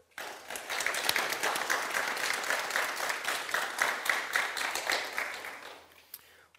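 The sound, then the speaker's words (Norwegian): A crowd applauds steadily for about six seconds, a dense wash of many hands clapping at an even loudness before tapering off, with one last stray clap at the end, welcoming Frp politician Pål Krüger at a political debate. “Gi ham en varm applaus.”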